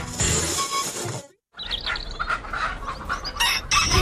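A Penedès rooster crows loudly amid a lively mix of clucking fowl and chirping birds, pausing briefly before the farmyard chorus starts again.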